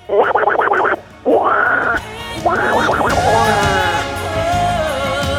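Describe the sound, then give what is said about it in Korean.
Raspy, rapid quacking in three loud bursts separated by short pauses, the last stretching into a wavering nasal squawk, like a voice imitating a duck, presented as Donald Duck among ducks swimming leisurely in the water. “물 속에서는 귀여운 오리 친구들이 한가로이 수영을 즐기는 중입니다.”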